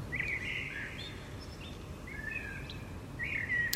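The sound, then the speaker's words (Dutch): A common blackbird sings in fluting phrases with pauses between them, early in the year at the end of January or beginning of February, over a steady low background rumble, with no one talking. “Zing maar mooi, merel. Alleen, waarom zing je nou zo vroeg, nu al?”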